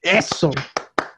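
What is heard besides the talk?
hand clapping applause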